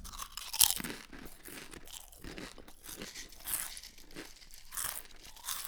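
Crisp crunching of potato chips being chewed, a steady run of brittle bites and mouth noises continuing through the whole stretch with no talking.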